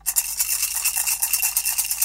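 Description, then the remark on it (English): A jingly squeaky toy is shaken quickly, producing a steady run of bright, tinkling rattles with an even rhythm for about two seconds, with no voices. “I was trying to find something jingly to. to set the scenes with.”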